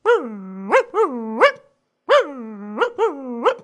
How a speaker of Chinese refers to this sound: 司机看他，那宠物狗对着司机乱叫。